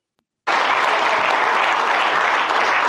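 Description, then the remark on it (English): At a press conference scrum as MJF comes in, after a brief silence steady applause bursts in and holds at a constant, loud level, many hands clapping together in a dense, continuous patter with no voices standing out. “They're clapping, bro. They're clapping.”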